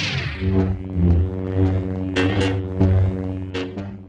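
A steady, buzzing lightsaber hum, made Foley-style by moving a microphone in front of a loudspeaker playing the sound, drones throughout, swelling and dipping in pitch and volume as the blade swings, with a few sharp whooshing accents. No voices, just the loud effect.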